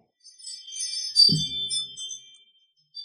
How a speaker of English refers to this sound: ring notification. Oh. From my chime that I have just unplugged.